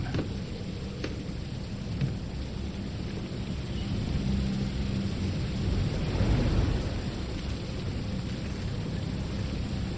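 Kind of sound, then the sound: nature, rain falling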